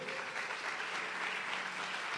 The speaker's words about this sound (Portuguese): Aplauda o nome do nosso Rei.